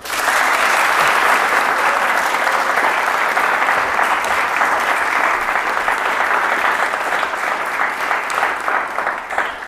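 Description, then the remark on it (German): A large live theater audience applauds steadily, a dense, loud wash of many hands clapping that holds for the full stretch and only eases slightly near the end, with no talking over it. “Ja, wie man, liebe ZuhörerInnen, unschwer hören kann, befinden wir uns heute.”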